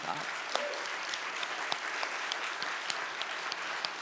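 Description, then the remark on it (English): A crowd at an event hosted by the Skirball claps steadily for about four seconds, a dense wash of many hands with sharper individual claps popping out irregularly, and a faint murmur of voices mixed into the applause. “Let's give all of us a big round of”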